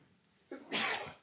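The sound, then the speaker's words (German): A single sharp sneeze, starting with a short inhaled catch and bursting into a loud, airy, hissing release, with no talking. “Gesundheit.”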